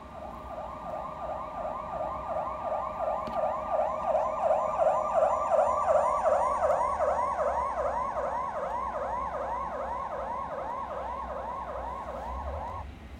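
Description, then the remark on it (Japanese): A siren wails in a fast, repeating yelp as it passes, its pitch shifting from the Doppler effect, growing louder toward the middle and easing off slightly near the end, with a faint road rumble beneath and no voices. “ドップラー効果波の発生源と観測者の相対的な速度の存在によって音と動く物体の波の周波数が異なって、えー、観測される現象のことであるあちょっとねドップラー効果の音音が聞けるようになってるんでね一回 BGM 止めましてそちらを聞いてみたいと思います。”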